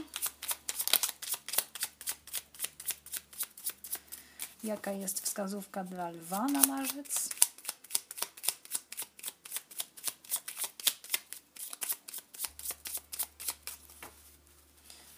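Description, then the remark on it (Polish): A deck of oracle cards is shuffled while a guidance card is sought, in a quick, steady run of crisp flicking taps that continues the whole time, with a woman briefly speaking partway through. “Natomiast teraz jeszcze poszukam karty wskazówki. Anielskie klucze, talia.”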